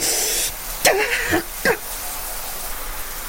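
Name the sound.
shower water spraying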